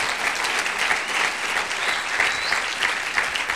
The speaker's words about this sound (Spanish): Ah, gloria a Dios, gloria a Dios. Démosle un aplauso al Señor. Gloria a Dios.